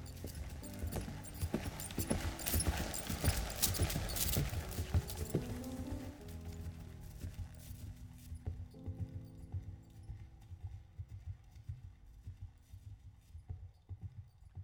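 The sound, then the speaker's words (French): Horse hooves clip-clop at a steady walking rhythm as a rider starts the day on horseback, clear over a low rumbling background that is busier at first and then quiets; no one speaks. “je suis à cheval, je démarre ma journée comme ça quel que soit le temps”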